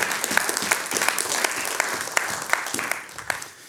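A church audience claps steadily, with dense overlapping hand claps forming a continuous wash and a few sharper individual claps standing out, fading slightly toward the end.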